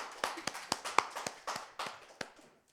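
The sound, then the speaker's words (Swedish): Brief, scattered applause from a small live audience of the Radio Totalmal broadcast at Fountain House, Götgatan 38, Stockholm: sharp, irregular claps overlapping unevenly for a couple of seconds before thinning out and fading to quiet. Nobody speaks. “En applåd till er och oss.”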